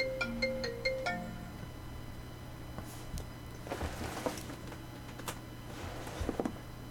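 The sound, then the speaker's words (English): A phone ringtone for an incoming call with no caller ID plays a quick, bright electronic melody of rapid beeping notes for about a second and a half, then cuts off, leaving a background hum with some rustling and handling noises. “No caller ID. You can suck. My cot. Don't try again. Take a hint.”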